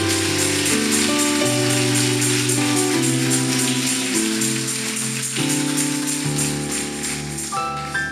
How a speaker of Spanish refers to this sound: Así que yo no sé si le podemos dar un aplauso a ese invitado especial.